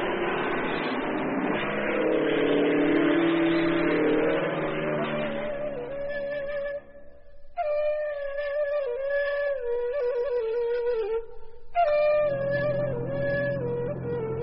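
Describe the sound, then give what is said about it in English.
An airplane engine roars overhead, starting as a broad rushing noise, then settling into a steady, buzzing drone whose pitch sags and rises, with two brief dips in sound. No one speaks. “Isn't that a plane? This is a plane.”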